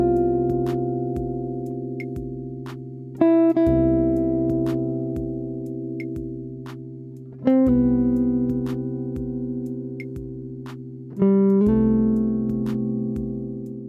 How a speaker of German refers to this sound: Da gehe ich gleich mal auf das F, also den Ton F über den C-Dur-Akkord. Hör mal, das klingt so.